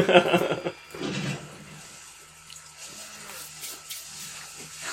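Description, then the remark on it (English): A loud, guttural raptor growl from a film bursts out at the start, followed by a few lower grunting snarls, then fades into quieter, murky rumbling and faint wet squishing movement. “We just see their reactions and hear the growling and the like squishing.”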